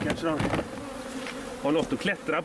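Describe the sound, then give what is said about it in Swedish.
A dense, steady buzz of a honeybee swarm in a box, being poured out over a swarm board leaned against an empty hive; a layered drone of many wings with a low hum and brighter harmonics that swell and waver throughout. “Det är mycket bin och de sprider sig snabbt och täcker varenda del av skivan och kanterna på den.”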